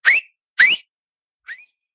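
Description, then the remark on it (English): Three sharp, shrill finger whistles with a breathy, rising pitch: two loud bursts in quick succession, then a shorter, fainter one after a pause. No talking. “but maybe there's people like me out there, you can whistle with your fingers.”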